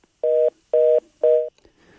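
Three identical telephone dialing tones sound in quick, even succession as staff try to reconnect a dropped phone line with a guest during a broadcast program, each a short steady electronic beep, loud with brief silences between and no voices.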